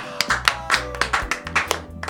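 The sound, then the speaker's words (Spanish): A short burst of applause for a guest being introduced on air, with several hands clapping in an irregular, crackly patter at moderate loudness over a low steady hum. No one speaks. “Aplausos verdaderos encima.”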